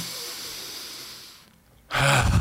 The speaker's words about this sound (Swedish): En övning är en väldigt bra, det är en koldioxidtoleransövning. Så du tar ett and, djupt andetag in.